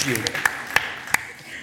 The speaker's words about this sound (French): bien non, mais on peut applaudir généreusement ceux qui trouvent, parce que c'est pas si facile que ça.